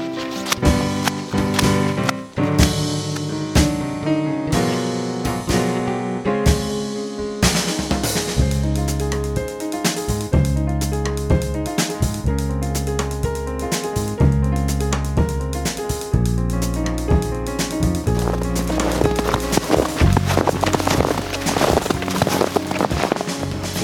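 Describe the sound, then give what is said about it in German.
Steady, rhythmic footsteps squelch and slap through wet mud, fairly loud, continuing for the whole stretch with no one talking. “Hier ist eigentlich nur Matsch. Hört ihr?”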